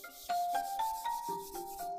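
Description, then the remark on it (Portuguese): A hand rubs back and forth across a glossy book cover, making a run of squeaky, slightly tonal friction strokes that continue steadily for a couple of seconds. “Sou eu esfregando a tela, não sei se da tela.”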